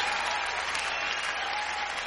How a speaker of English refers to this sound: Give Rich, give Rich a round of applause.